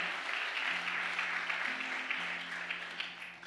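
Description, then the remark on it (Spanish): An audience applauds in a steady, dense wash of clapping that holds for several seconds, with sustained low keyboard-like tones droning underneath. “Vamos, denle aplauso fuerte.”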